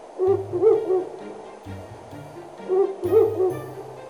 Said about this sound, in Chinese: 原来是猫头鹰先生啊！他站在大树上，睁着又圆又大的眼睛，看着爱孟奇和奥帕。